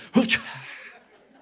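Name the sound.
imitated sneeze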